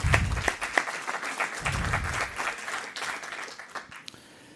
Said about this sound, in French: Bravo. On peut vous applaudir, ouais.